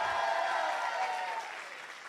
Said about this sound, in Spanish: Hoy completamos 301 nuevas personas en un año. ¿Cuántos le dan un grito de victoria?